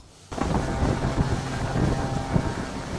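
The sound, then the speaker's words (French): A large container ship, the CMA CGM Jacques Saadé, entering the port of Le Havre. Its deep engine rumble drones steadily, nearly drowned by heavy wind gusting across the microphone after a brief quiet start. No voices are heard. “On embarque dans la rade du Havre quand soudain, l'immense silhouette du CMA-CGM Jacques Sadé fait son entrée dans le port”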